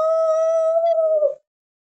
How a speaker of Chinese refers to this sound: 一声长长的嚎叫打断了他们的争吵。这个奇怪而嘶哑的声音，小公鸡们听得血都凝固了。